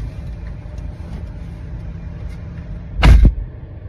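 A car door is opened for a passenger, unlatching with a sharp clunk near the end, in a car at a Cheesecake Factory restaurant, set against a steady low rumble of an idling vehicle. No one speaks.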